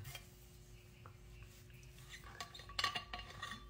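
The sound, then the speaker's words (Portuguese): Water being poured into a mug, with a soft steady trickle beneath a few sharp ceramic clinks near the end; no one speaks. “Pô, água na caneca aqui.”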